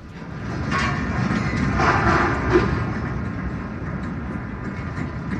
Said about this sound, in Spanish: Y ahí empieza el temblor y vamos a escuchar cómo se estremecen los cimientos del edificio. Eh, pero, eso ya es cuando está temblando.